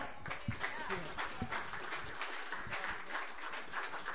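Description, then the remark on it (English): An audience claps steadily for a 14-year-old singer, many hands blending into a dense, crackling wash of applause that holds at an even level for about four seconds. “So let's give her another hand”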